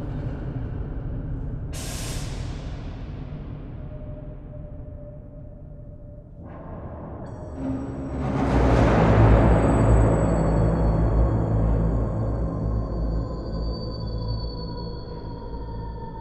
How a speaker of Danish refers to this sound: So that's the impression that you get with this uh, white noise, like or yeah pink noise going like and it's like really loud and uh, sometimes filtered a bit but then suddenly you you can hear the room entirely